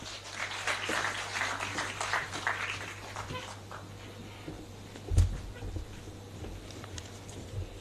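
An audience claps in a dense, steady patter that gradually thins and fades out over several seconds, leaving a low hum and a single soft thump.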